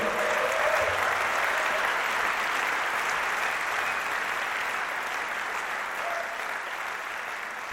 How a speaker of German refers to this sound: Begeisterter Applaus auch nach der Zugabe im HR Sendesaal beim Auftritt des … mit der … Band unter Leitung von …. Das war der zweite Teil des Mitschnitts dieser Begegnung beim 52. Deutschen Jazzfestival Frankfurt 2021.